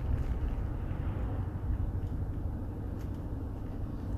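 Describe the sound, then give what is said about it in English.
A school bus rumbles past, its deep, steady engine drone filling the scene without much rise or fall. No one speaks. “Some sort of post-apocalyptic school bus.”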